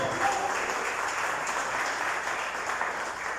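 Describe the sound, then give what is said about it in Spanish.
A crowd claps steadily and densely, a sustained wash of applause from many hands without pause, with no speech over it, given to the Lord during a sermon. “Déselo fuerte al Señor, por favor.”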